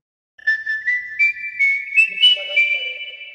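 A person whistles a short, clear melody, holding steady tones with small pitch glides for about three seconds. The whistle is fairly loud, with no talking.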